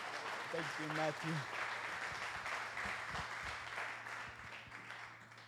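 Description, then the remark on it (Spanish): An audience breaks into steady, dense applause for a group of actors that fills the whole stretch, with a brief voice calling out near the start before the clapping carries on and slowly eases. “Ayer me dieron un fuerte aplauso a estos actores.”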